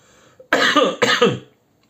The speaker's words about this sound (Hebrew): שיעול, גם זה קורה. אתם רואים? קורה.